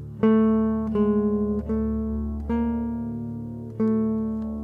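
A sustained, harmonically rich instrumental line moves through five notes, each starting with a soft attack. It opens on the fifth below the root of a piece in D minor and circles that fifth with small steps above and below it. No one speaks.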